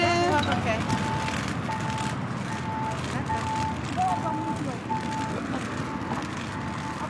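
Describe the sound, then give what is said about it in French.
An audible pedestrian crossing signal beacon beeps in a steady, repeating pattern of short tones, signalling that it is safe to cross, moderately loud over constant street traffic noise, with people talking. “Et ça, ce bruit, ouais. le euh, télé, ça veut dire qu'on peut traverser.”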